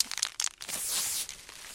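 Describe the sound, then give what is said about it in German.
A white paper tree-marking band is torn and tied around a tree in a forest, with a quick burst of short crinkling rips, then a longer sustained tearing rustle. Fairly quiet, with no voices. “Damit ich den Überblick behalte, bekommen die ein schönes weißes Band. Und das Band ist aus Papier.”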